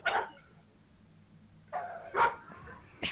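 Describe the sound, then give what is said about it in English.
Several sharp barks from guard dogs being unleashed ring out: one at the start, then after a pause a quick cluster of two or three more, fairly loud over a low background hum. “Another unleashing the guard dogs.”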